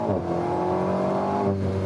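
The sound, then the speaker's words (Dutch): A mid-engine, rear-wheel-drive sports car engine revs with a strong, steady growl, its pitch holding high and then dipping slightly near the end, loud and continuous with no voices. “Waardoor je de motor voelt en hoort werken”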